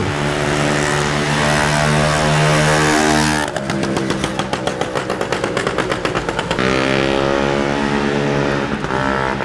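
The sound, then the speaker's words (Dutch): A motorcycle engine idles steadily, then breaks into a rapid sputtering putter for a few seconds before settling back into a smoother drone, loud with no voices. “Maar er zijn ook dagen dat ik eigenlijk kan genieten van de, het geluid van de motor of van de...”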